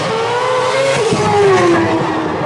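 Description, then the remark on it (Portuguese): A loud V8 car engine roars close by for the whole stretch, its whining pitch climbing and then sliding down as the car rushes past, with no voices. “carro eu acho que é um V8, porque é muito alto o som, é muito alto.”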